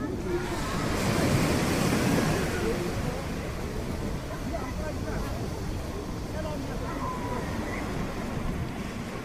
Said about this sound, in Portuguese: É um som familiar, uh, todos nós já o escutamos também, há algures. Que som é este que nos trouxe e porquê é que nos trouxe este som? Este som é o, é o, é o som de uma praia num dia de verão cheia, cheia de gente